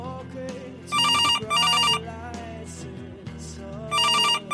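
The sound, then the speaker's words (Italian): A telephone rings in loud electronic bursts, two rings close together, a pause, then another, sounding over a steady low musical background. “Il telefono squilla, cerco di non farci caso.”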